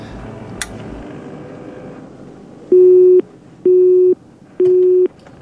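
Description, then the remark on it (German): A phone busy tone beeps three times at a steady pace, each flat tone lasting about half a second, loud after a quiet stretch of low background noise, as a phone call attempt fails because there is no network. “Ach komisch, scheint irgendwie kein Netz mehr zu geben.”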